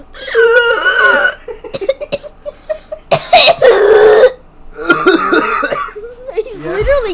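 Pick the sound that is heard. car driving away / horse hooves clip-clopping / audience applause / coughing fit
coughing fit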